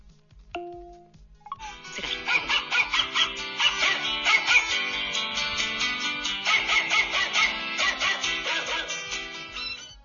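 Playful electronic music with a steady thumping beat, its melody carried by rapid, repeated dog-bark sounds in two loud bursts, clear, with no one speaking, played by a voice assistant.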